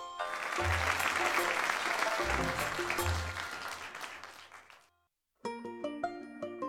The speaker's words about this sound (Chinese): 好，鼓掌。